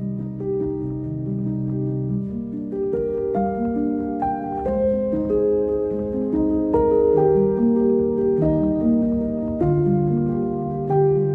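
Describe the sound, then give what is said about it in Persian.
Gentle instrumental music, played as the background under a recited poem, plays on its own, with sustained, overlapping melodic notes moving in slow steps at a steady, moderate loudness; no voices are heard. “موزیکی که روی این شعر پخش شد”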